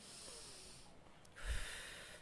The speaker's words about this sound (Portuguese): Então nós respiramos juntos, inspirar mesmo.